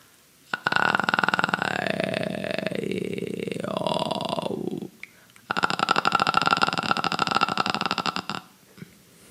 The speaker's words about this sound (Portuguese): Eu vou dar um exemplo de registro fry, emitindo uma nota com a vogal A para facilitar o acesso e depois mudando as vogais. Ouve aí.